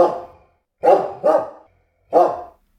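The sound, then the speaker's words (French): A dog named Socrate barks four times, loud sharp woofs with a pause before the last one, no voices present. “Non, moi, je suis un chien. Un toutou, un clébard, un corneau, quoi.”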